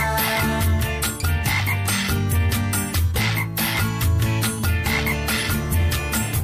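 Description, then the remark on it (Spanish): A voice imitates a frog's croaking in a steady, rhythmic pattern, sung over loud, dense music with a regular beat. “Y el buen caminante puesto en cuatro patas se puso a cantar, cro como rana.”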